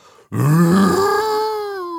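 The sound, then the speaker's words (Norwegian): A person imitates a moose call with one long, loud, grunting bellow that starts low and rough, then rises into a drawn-out nasal moan held for over a second. “Men elgen er en luring.”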